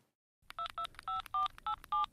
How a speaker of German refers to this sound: Okay. Dann rufe ich jetzt an.